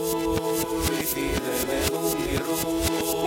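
A song played backwards as a radio quiz question, with swelling, reversed-sounding notes and a steady pulsing beat that seems to suck inward rather than strike. Fairly loud and continuous, with no speech.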